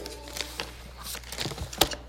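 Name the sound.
paper being handled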